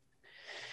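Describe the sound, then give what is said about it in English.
A short, breathy exhale pushed out through the mouth after breathing in through the nose, the belly going down, a soft airy rush that swells and holds for under a second, fairly quiet with no talking. “The air comes out my mouth.”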